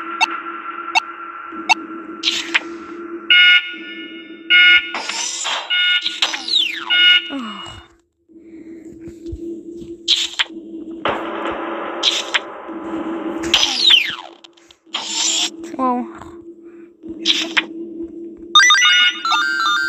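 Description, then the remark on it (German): A shrill electronic alarm in a video game rings in repeated bursts of high, bright tones, with warbling, sweeping beeps layered over a steady low hum, loud and continuous with no talking. “Wo geht der Alarm nicht?”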